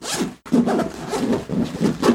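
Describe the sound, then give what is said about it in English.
Zippers of a 7-pound (over 3 kg) backpack being unzipped to open it, two quick ratcheting pulls separated by a brief pause, the second a longer continuous rasp with rhythmic teeth clicks. “For instance, when you're opening opening it up and you unzip these zippers”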